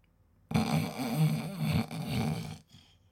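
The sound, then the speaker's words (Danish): A person fakes a snore: one long, rattling, throaty rasp lasting about two seconds, loud, followed by quiet. “du bare faker, du snorker.”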